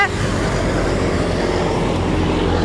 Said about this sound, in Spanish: con un ruido de tráfico, pero es porque ya se levantó la gente trabajadora.